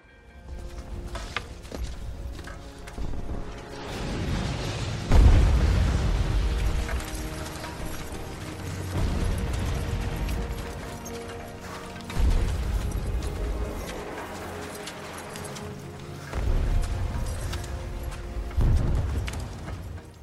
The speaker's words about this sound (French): Arrive la Première Guerre mondiale. Nous venons d'entendre l'ambiance dans les tranchées, reconstituée pour le film Joyeux Noël.